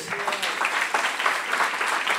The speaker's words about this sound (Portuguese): Todos eles passaram por transição, querido. Será que você pode aplaudir Jesus pelas transições?